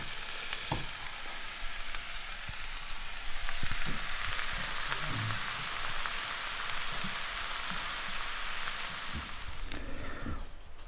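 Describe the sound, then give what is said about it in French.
Steady, dense sizzling of leeks, onions and shallots frying in a pan, with a few soft clinks and stirring knocks, fairly loud throughout, no talking. “les poireaux vont rejoindre les oignons les échalotes. Oignons et échalotes avec les poireaux. On va laisser tomber tout ça gentiment.”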